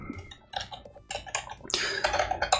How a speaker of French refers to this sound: Parce que le clavier, ça, fait quand même beaucoup de bruit. Ouais, les claviers mécaniques, je ne comprends pas. c'était moi ça Bah oui, c'était c'était Pourtant, je, faisais tout doucement.